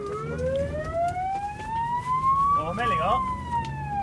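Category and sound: vehicle, emergency vehicle siren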